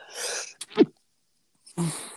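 A single sharp sneeze with a breathy intake just before it, followed by a moment of silence and then a brief rush of breath or shuffling noise.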